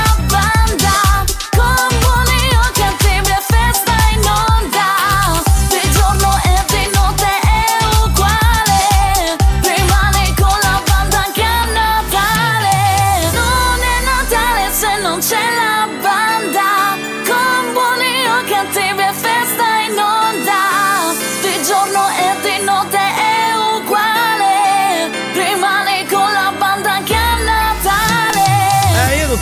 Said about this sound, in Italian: le volte che ascolto le canzoni di Natale di …, non lo so, la pelle d'oca